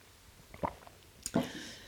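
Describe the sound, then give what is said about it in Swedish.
Someone sips a glass of water, with two soft gulping swallows about a second apart against a quiet background and no talking. “Så att jag tar i alla fall ett glas vatten nu.”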